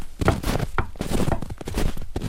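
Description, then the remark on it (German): Heavy footsteps stomp along outside through deep snow in a steady rhythm, each step a dull, muffled thud with a slight crunch, repeating several times at moderate loudness with no voices. “Ja, und man, warte, wenn wir mal ein bisschen leise sind, man hört den auch schon stapfen draußen, ne?”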